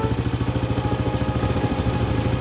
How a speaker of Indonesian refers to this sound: Dia turun, lalu menuju sepeda motor usangnya. Sepeda motor yang sudah ikut berjuang bersamanya dalam berproses menjadi sukses seperti sekarang ini. Segera di starter motor itu, dan sekali sepakan, motor itu langsung menyala.